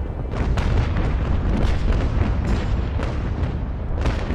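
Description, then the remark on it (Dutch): A sustained cannon bombardment of Antwerp in October 1830 by warships on the Scheldt and cannons in the forts, firing cannonballs and burning projectiles: heavy booms and explosions roll one after another with sharp bursts around half a second, three seconds and four seconds, loud and continuous with no voices. “Urenlang wordt er geschoten. Kanonskogels en brandende projectielen trekken een spoor van vernieling.”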